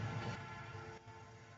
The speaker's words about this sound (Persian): قطار سوت زنان صدا رو برد.